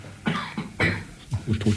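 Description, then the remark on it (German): A person coughs several times in close succession, with harsh, breathy bursts, moderately loud, ending in a few shorter, throaty coughs. “Nee, nee, mach, mach, ich höre trotzdem zu, also auch wenn ich hust, äh, höre ich zu.”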